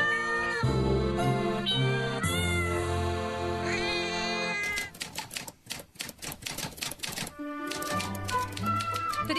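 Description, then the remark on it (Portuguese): A cat meows in a few drawn-out, sliding cries over a steady tonal backdrop, then rapid typewriter clacking takes over for the rest, loud. “No episódio de hoje, uma viagem na história com o primeiro miado do microfone.”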